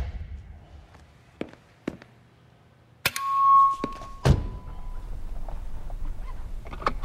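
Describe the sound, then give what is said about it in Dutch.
An electric car motor revs with a thin, steady whine that swells for about two seconds and then fades, framed by a few sharp thunks and clicks with no talking. “That's what an electric motor sounds like.”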